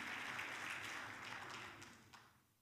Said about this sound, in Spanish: Denle un fuerte aplauso a las madres. Yo sé que le han dado varios. Denle uno fuerte, con ganas. Estamos celebrando.